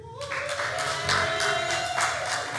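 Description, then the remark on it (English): An audience of Ravens fans bursts into a sustained round of applause, dense clapping filling the whole moment at a steady loudness, with a few cheering voices riding on top. “Uh, by a round of applause, how many of you are Ravens fans here?”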